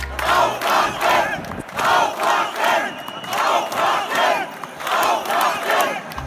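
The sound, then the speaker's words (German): A crowd of about 300 coronavirus deniers gathered in front of a cathedral shouts in unison, loud rhythmic bursts of chanting repeating roughly every half second to second, with a diffuse roar of many voices between them. “Ja, so klang das vor vier Wochen direkt vor dem Dom. Da hatte sich nämlich eine Gruppe von Corona-LeugnerInnen versammelt.”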